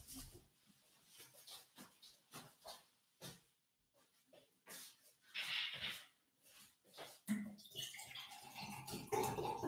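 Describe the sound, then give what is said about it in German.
A series of uneven knocks and shuffling handling noises as someone fetches water, then water starts running steadily and loudly near the end. No one speaks. “eine Sekunde, ich muss mal kurz mein Wasser holen”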